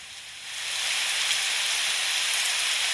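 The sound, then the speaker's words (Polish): Steady rain hisses continuously, a dense wash of drops that swells slightly in the first second and then holds at an even, moderate intensity with no voices. “Umiarkowany deszcz”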